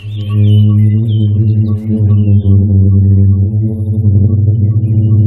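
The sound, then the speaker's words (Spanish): A loud, steady low drone from a booming sand dune in the Sahara desert, a deep resonant hum rich in overtones that holds unbroken for about five seconds with a slight wavering pulse. “Este sonido que están escuchando ha sido grabado en una duna del Sáhara.”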